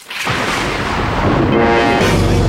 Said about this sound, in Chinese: 打雷的时候用枕头把耳朵捂上，就不怕了啊。